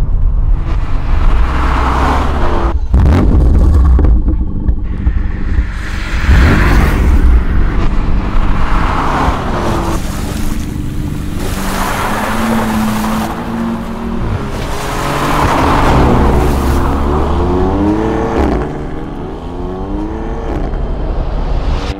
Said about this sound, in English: That right there is a BMW M3 competition pack.